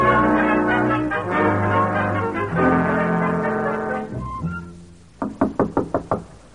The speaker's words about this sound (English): Let's start ringing doorbells.